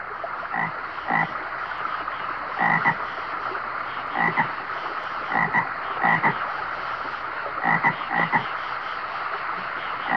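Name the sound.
frogs croaking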